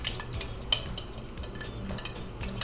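Shrimp paste being stir-fried in oil with dried small shrimp in a pan: a steady, soft sizzling hiss broken by a few sharp metallic scrapes and clicks of a spatula against the pan, with no talking.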